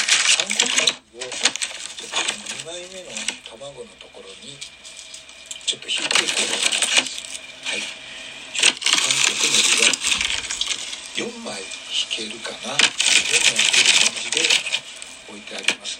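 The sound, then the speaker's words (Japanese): Loud crinkling and rustling of a plastic packet of Korean seaweed as the seaweed is placed on cooking egg, coming in repeated bursts throughout, with a person talking intermittently underneath. “で、はい、これをちょっとガサガサしてますが、えー、と、このね、卵のところに、えー、韓国のりを乗っけてます。”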